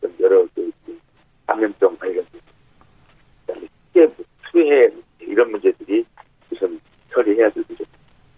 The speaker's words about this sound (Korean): 아, 청취자 여러분들 죄송합니다. 이게 전화 연결 상태가 좋지 않아가지고, 어, 잠깐 다시 연결을 해보겠습니다. 이 전화로 코로나 상황이라 전화로 다들 연결을 하다 보니까 이런 일이 또 생기네요.